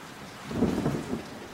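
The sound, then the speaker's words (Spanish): Soft, steady rain begins to fall, hissing over a brief moment, with a low rolling rumble like thunder swelling through the middle. No voices are present. “Despacio, como en puntas de pie, comenzó a llover.”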